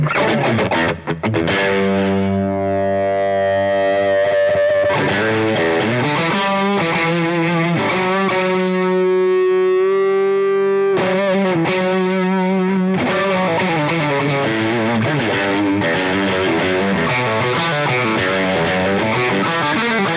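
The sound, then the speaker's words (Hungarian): A heavily distorted, high-gain electric guitar played through a tube amp plays loud, saturated chords and sustained riffs, with a long ringing held note in the middle, filling the whole stretch with no voices. “Na még egy kis hygiene izé, high őrjöngést meg, megkíván a szervezet.”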